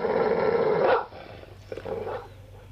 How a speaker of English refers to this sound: It took 46 minutes in the show to get that type of bark.